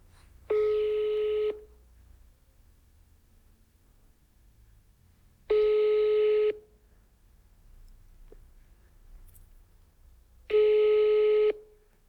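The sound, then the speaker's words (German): Three steady telephone ringback tones, each about a second long, spaced evenly several seconds apart over faint low background noise, with no one speaking, as a call rings through unanswered and reaches voicemail. “deine Combox zeigen.”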